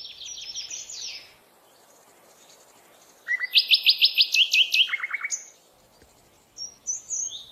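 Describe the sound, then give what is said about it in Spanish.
Forest ambience filled with birdsong: bright chirps and a fast, rapid trill of repeated notes from one bird, with other calls overlapping and fainter tweets later, over quiet background. “Entonces, lleva tu mente a un bosque.”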